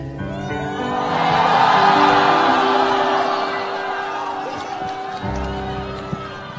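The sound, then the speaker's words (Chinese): A concert crowd cheers loudly after a song, the roar swelling for a couple of seconds and then slowly fading, with sustained musical notes still ringing underneath. “哇，很有听演唱会的感觉，是不是？到处是欢呼声啊！”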